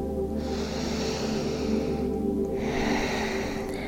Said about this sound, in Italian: Quindi respira profondamente dal naso.